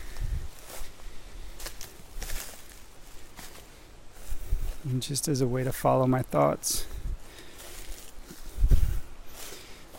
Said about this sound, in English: and right now i'm walking over this hill that i've been walking over for 20 years and it goes down to a creek.